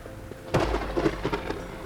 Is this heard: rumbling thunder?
yes